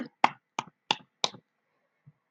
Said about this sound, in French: Faut être fier de vous. Allez, allez, allez, allez. On s'applaudit.